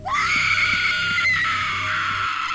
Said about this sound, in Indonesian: Setelah selesai, mereka pulang jalan kaki. Beberapa menit kemudian, ada jeritan panjang dari arah Tua Pekong.